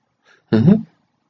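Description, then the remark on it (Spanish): A single short, loud roar, about a third of a second long, that sounds like a person imitating a lion with a deep, growling voice, followed by silence. “Dio tan fuerte rugido, tan fuerte, pero tan fuerte, que Teópolo, que aún seguía corriendo, despavorido, huyendo de las garras y las fauces del león, se detuvo de inmediato.”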